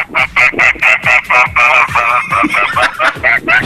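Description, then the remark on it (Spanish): A person imitates a goose with their mouth, letting out a fast run of loud, nasal honks in steady rhythm, roughly a dozen in quick succession, with no background noise. “Tres, a, cinco, veces el sonido del pato ganso.”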